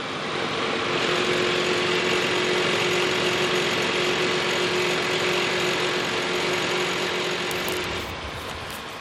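A loud, steady machine engine drones with a constant hum and gritty mechanical texture at a construction site of a new residential neighbourhood in Ljubljana, running without pause before easing slightly near the end.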